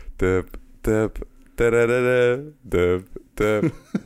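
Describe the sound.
A single voice hums a bouncy TV theme melody in short phrases, with one long sustained note in the middle, fairly loud with no other sounds around it.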